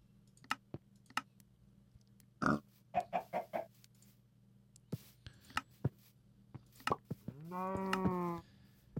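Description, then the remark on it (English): A video game pig grunts in short oinks: a quick burst of rapid snorts followed by one longer, rising squeal, with scattered sharp clicks around them and no talking. “and you see this the the pig I'm next to.”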